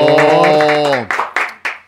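A long, drawn-out vocal cheer gives way to a short burst of applause: a handful of sharp, evenly spaced claps, close and fairly loud.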